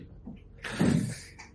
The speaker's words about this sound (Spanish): Se cierra la puerta del patrón, estás dentro, ya tienes un pitillo en la boca. Lo enciendo.